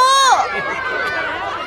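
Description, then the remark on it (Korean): Several high-pitched children's voices shout and squeal over one another in a classroom, a steady, noisy commotion, with a busy scuffle of movement underneath as the kids run around. “아, 제가 뭐 아무리 애걸복걸하고 얘기를 해도 애들은 뛰고 돌아다니고 소리 지르고 난리도 아니었어요.”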